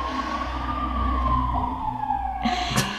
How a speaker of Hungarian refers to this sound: Igen, közben a mentő háttérben, meg tűzoldó, meg nem tudom.